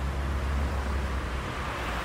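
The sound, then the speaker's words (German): A continuous roar of heavy traffic on a six-lane main road, a dense low rumble with broad hissing noise, steady, with no voices and no distinct individual vehicles standing out. “muss durch diese sechsspurige Straße. Das heißt, das ist die große Schlagader, mhm.”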